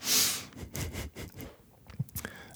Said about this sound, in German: Hm, Mikrofon an und ich muss räuspern. Und das muss ich nachher alles rausschneiden und schnippeln und das nervt mich ja jetzt schon.